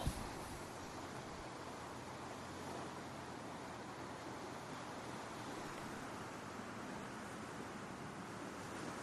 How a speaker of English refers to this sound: I'm in a nice spot. I like the sound of the waves in the background.